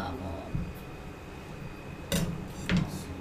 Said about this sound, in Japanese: 包丁通すとプチプチプチと音があるんですねあんまり骨抜きしてないからですね